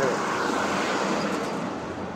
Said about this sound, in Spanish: Aquí ya estoy en la avenida. Y en esta avenida hay más gente y hay más coches y más automóviles como este.